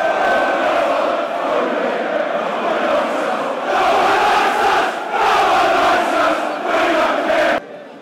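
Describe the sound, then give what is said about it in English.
A football stadium crowd at a match in heavy rain, around the 60th minute, roars continuously, loud and dense, with swells of rhythmic chanting rising and falling before the noise drops off abruptly near the end. “incredible, incredible atmosphere.”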